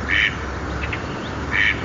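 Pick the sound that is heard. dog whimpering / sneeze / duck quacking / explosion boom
duck quacking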